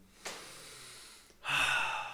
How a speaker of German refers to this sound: Oh, das ist tiefe Atmen nicht vergessen, ohne Witz.